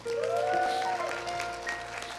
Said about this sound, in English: Give God one more good hand clap.